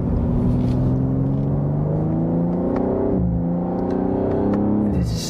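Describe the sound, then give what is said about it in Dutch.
A BMW sports car engine revs hard, its pitch climbing steadily toward its 7,250 rpm redline, dropping briefly at a shift before winding up again and cutting off near the end. Loud, with no talking. “Ehm, Redline, ja, 7250 toeren.”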